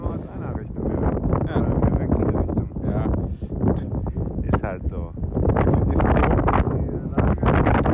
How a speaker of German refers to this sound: Wind. Bei Wind, ja, bei starkem Wind von allen Richtungen und äh, Regen auch ein bisschen, nicht schlimm.